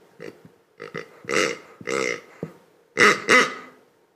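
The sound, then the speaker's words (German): A series of about seven loud, snorting pig-like grunts in uneven bursts, an imitation of a pig made with a small spoon, with no talking. “Also, alles, was du brauchst, ist zum Beispiel so ein kleiner Löffel. Okay. Und mit ein bisschen Fantasie machen sie daraus so ein mieses Schwein.”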